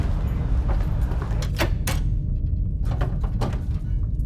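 Heavy drawers scrape and slide, with a few sharp knocks and thuds as they bang shut over a constant low rumble; fairly loud, with no voices.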